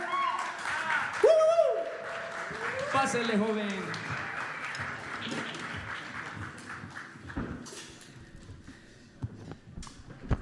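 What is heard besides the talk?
strong audience applause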